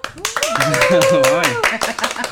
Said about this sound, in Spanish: Por favor, un aplauso.